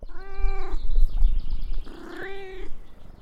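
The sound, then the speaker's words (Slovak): A live cat that had got up to the Téry mountain hut meows twice, fairly loud, two drawn-out wavering cries separated by a short pause, over a low rumbling background with no voices. “Dole zasa znášal dokonca naozajstnú živú mačku, ktorá sa, nevedno ako, dostala až hore na chatu.”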